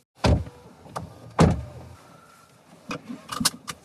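Someone gets into a car: a loud door thunk, a second heavy door close, then a power window whirring briefly, followed by softer clicks and shuffling inside the cabin.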